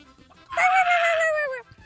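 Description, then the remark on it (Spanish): A person's voice imitates a hen with one loud, drawn-out squawk lasting about a second, sliding slightly downward in pitch, with quiet before and after. “Ok, estaba una gallina en un establo, ¿no? Entonces estaba puj y puj.”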